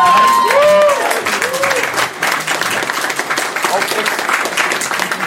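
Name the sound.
applause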